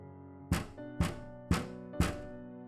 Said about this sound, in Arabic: الخطوات سابت المدخل وابتدت تلف حوالين البيت سمعنا صوت نقر على شباك اوضتي